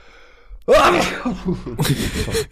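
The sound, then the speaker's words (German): A single loud sneeze bursts out suddenly after a brief quiet moment, trailing off into breathy, voiced noise. “Äh, Gesundheit.”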